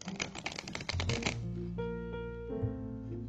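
A tarot deck, the Guilda Royal deck by Ciro Marquette, is shuffled in a quick, crisp flurry of riffling snaps for about a second, then gives way to soft, sustained background music.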